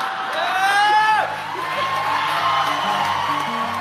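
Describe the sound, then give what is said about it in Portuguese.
A crowd applauds steadily and loudly in response to a speech by director Jane Campion, with high rising whoops and cheers ringing out over the clapping early on before settling into a sustained roar. “Apesar dos aplausos, no momento, as declarações de Jane Campion viriam a merecer algumas críticas.”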